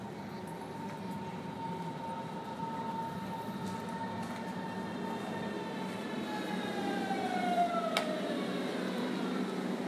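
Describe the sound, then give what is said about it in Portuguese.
An S1 train bound for Wannsee via Potsdamer Platz pulls into a station platform served by six or seven train lines, its steady rumble swelling as it arrives, with high whining tones from the motors and brakes sliding downward as it slows to a stop. “uma que vai e uma que volta, só que tem umas seis ou sete linhas de trem que passam por essa mesma plataforma como é que será que as pessoas que enxergam fazem para saber qual o trem delas?”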